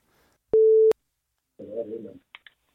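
A single loud, steady telephone ringing tone sounds once for under half a second while a call is placed to a guest during a live Danish broadcast, followed by a short burst of a voice and a couple of faint clicks.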